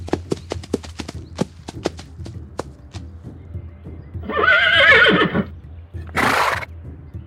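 A run of sharp, evenly spaced hoof clip-clops gives way to a loud, wavering horse whinny, followed by a short breathy snort.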